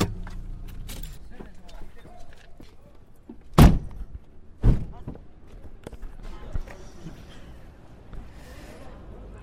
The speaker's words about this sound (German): Steigen jetzt aus dem Auto aus.